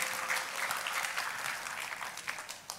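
A church audience claps for God during a sermon in a steady, dense burst of applause, many hands overlapping into a bright, continuous patter that holds at an even level throughout, with no talking heard.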